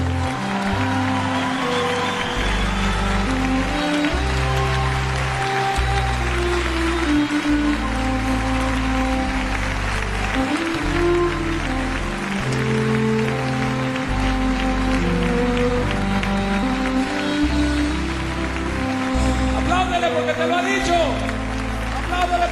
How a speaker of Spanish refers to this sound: Si ese aplauso es para mí o para la canción, está bien. Pero pues si es para Dios, está muy flaco. Tiene que estar de pie y gritando.